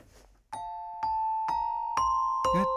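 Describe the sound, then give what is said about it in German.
A small glockenspiel plays a slow, steady melody of five bright, ringing notes, about half a second apart, each lingering as the next is struck, clear with no voices. “Aber ich habe mein kleines Glockenspiel hier. Und ich spiele es dir vor und sobald du es erkennst.”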